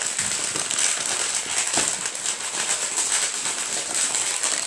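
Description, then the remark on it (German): Packaging being opened: a steady, dense crinkling and crackling of wrapper material that runs unbroken for several seconds at an even loudness, with no voices over it. “Ich mache jetzt mal erstmal Verpackung.”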